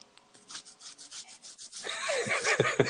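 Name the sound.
pen writing on paper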